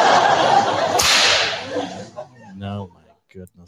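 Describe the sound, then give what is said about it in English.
A loud, sharp whip crack sound effect, played from a soundboard whip button, snaps out over a wash of audience laughter, followed by a few seconds of people talking and chuckling. “Was, yeah, you're, you're getting heavy heavy fingered on that whip button tonight.”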